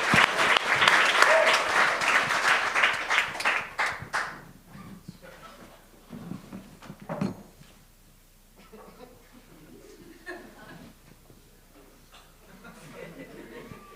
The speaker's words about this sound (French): All right! On peut applaudir, on a le droit, hein?